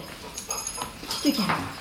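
A dog whimpers in a few short, high, whining cries that rise and fall, with faint background noise around them.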